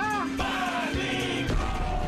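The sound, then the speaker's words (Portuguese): A loud studio crowd on the show Bang Covid, broadcast from the Panflix studios, cheers and claps, with whoops and shouted voices rising over a dense, steady wash of applause lasting a couple of seconds. “Muito obrigado pelos aplausos. São os aplausos de Reginaldo para você.”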